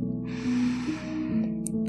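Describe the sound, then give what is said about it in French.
A slow, deep breath drawn in through the nose by a person lying in bed and counting their breaths, a soft airy rush lasting over a second, clear over a low steady hum in the background. “À 1, tu inspires.”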